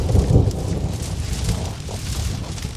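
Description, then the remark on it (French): A thunderstorm over a large forest: a deep, heavy rumble of thunder rolls at the start as lightning strikes a dead tree, over a steady, dense hiss of rain that continues throughout, fairly loud, with no voices. “Un jour éclata un énorme orage la foudre tomba sur un arbre mort qui prit feu.”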